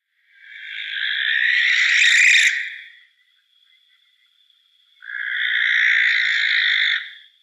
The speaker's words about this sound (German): Wenn man sehr dicht dran ist, kann das sehr unangenehm sein. Die Schleiereule brütet gerne in, in Menschennähe auf so Kulturflächen, also Bauernhöfen, in alten Scheunen, aber auch mal in Kirchtürmen.